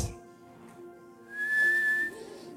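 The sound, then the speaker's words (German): A person whistles a clear, steady high note that swells briefly louder and then holds, with softer sustained tones underneath and no talking. “Ich hoffe, du weißt, wie man pfeift.”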